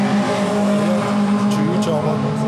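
Steady engine drone with a strong low hum and shifting pitch, like racing cars running on a track at the CHGP 2023 race event, with brief higher bursts and a busy background of crowd noise.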